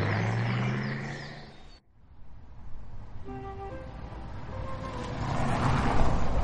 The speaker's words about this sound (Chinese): 又滴滴滴哒哒哒的开走了。